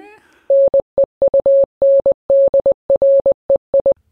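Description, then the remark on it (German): Morse code beeps spelling out 9.3, generated on a website: a single clear, steady mid-pitched tone keyed into quick dots and longer dashes, loud, in a brisk run of short bursts with no talking over it. “Morsecode.world ist das, ja.”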